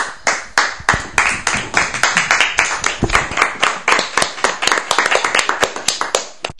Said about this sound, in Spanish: Desde aquí, mm, como el, último aplauso que ellos han dado, se lo han pasado muy bien.